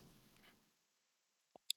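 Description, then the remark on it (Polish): A keyboard Enter key is pressed on a Mac to confirm a restart, giving two quick, sharp clicks, one dull and one brighter, after a moment of near silence as faint background noise fades out. “Dajemy Enter, żeby tutaj to zatwierdzić.”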